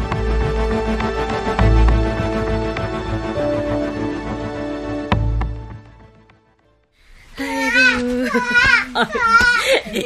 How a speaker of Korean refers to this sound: 요쬐끔한 것이 울음소리 큰 것 좀 봐라. 커서 여장부가 되겠구나. 잠투정인 것 같습니다.